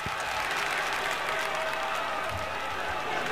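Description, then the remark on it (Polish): A concert crowd applauds steadily, dense clapping and cheering filling the space at a constant level throughout, sounding like a live recording played back. “E, a posłuchajmy jeszcze, jak było na koncercie.”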